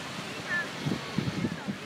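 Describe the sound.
Outdoor ambience on a calm beach with few people: a steady wash of wind and surf noise fills the background, with indistinct murmuring voices and a brief faint whistle-like tone.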